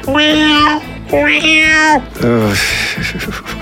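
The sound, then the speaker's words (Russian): A voice makes three drawn-out, cat-like meows in quick succession, loud, each with a wavering pitch, the last one dipping and trailing off. “С кошачьими интонациями еще работать.”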